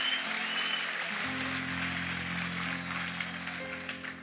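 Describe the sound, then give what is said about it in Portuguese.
Steady, dense hiss of rain falling, continuous and fairly loud throughout, with a low electrical hum underneath and no voices. “Esse barulho é de chuva, é?”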